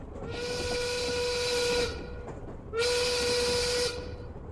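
Two long, loud blasts of a steam train whistle, a steady breathy tone with a hissing edge; the first lasts about two seconds, the second is shorter, with a quiet rumble between them.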